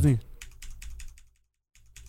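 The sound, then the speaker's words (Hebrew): A quick burst of mechanical gaming keyboard keys clicking, several crisp sharp taps in a rapid rhythm, fairly loud, then a short silence before a faint low rumble returns. The keyboard is the more expensive model, with a numpad, a volume roller and full lighting. “ואתה יודע, מקשים, יש להם את הצליל, חקיבות...”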